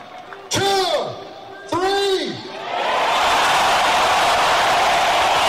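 stadium crowd shouting loudly

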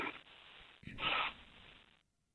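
coughing

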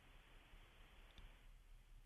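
phone call breaking up

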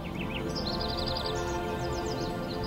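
birds chirping

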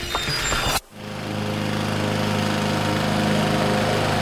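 lawn mower running

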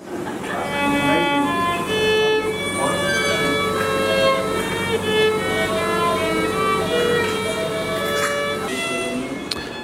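violin being played

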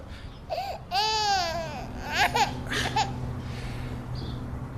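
crying

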